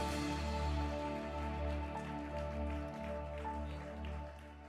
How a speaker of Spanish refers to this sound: ese aplauso de alabanza a nuestro Dios en esta noche, mi hermano.